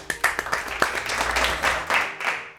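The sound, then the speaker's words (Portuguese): A burst of applause from a class for their teacher, many hands clapping in a dense, steady patter with a few sharper individual claps standing out, fairly loud and continuous throughout. “Palmas pro professor!”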